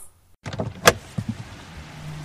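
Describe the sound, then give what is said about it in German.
A car door opens: a brief rattle of the handle, a sharp latch click, then a few soft clunks before a low, quiet hum lingers. “Tür auf,”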